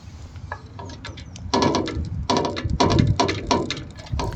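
A gate being moved, with a series of clanking, rattling metallic knocks and scrapes that grow louder and denser partway through, with no voices.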